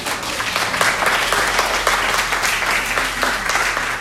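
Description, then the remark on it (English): Sustained applause from an audience, a dense wash of many hands clapping at a steady, fairly loud level for the full few seconds, with no talking over it. “I had clap for that.”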